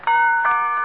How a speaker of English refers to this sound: McGee, that was the doorbell.